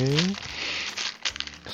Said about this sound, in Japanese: 咀嚼音苦手な人は、今、パリパリ音はパッケージの音ですよ。薄いパッケージ開けます。